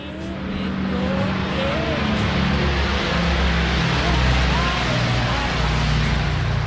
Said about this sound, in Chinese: 我们现在再听一下飞机的轰鸣。